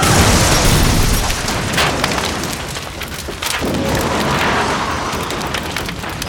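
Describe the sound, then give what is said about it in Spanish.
A loud, booming crash as two trucks collide head-on on a road toward the village of Somosierra, also hitting three other trucks, followed by a sustained rumbling roar of wreckage that wavers midway and continues at steady volume, with no voices. “Ambos camiones chocaron de frente, afectando a los otros tres que en un principio Andrés había conseguido esquivar.”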